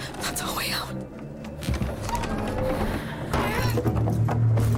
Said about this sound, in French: On ben, arrive ici, il y a une porte secrète juste là. Ouvre la porte secrète.